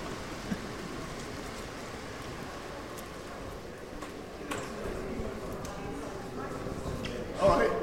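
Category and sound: nature, rain falling outdoors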